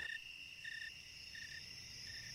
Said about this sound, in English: It's the cricket at the start of your podcast, the snowy tree cricket. You can actually determine the temperature by counting the chirps. You count how many chirps in 13 seconds and add 40, and you get the temperature in Fahrenheit.